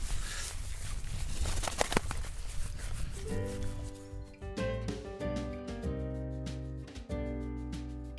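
Footsteps crunch along outdoors on the Zuilenstein estate for a few seconds over a rustling background, then melodic music fades in and carries on over the rest.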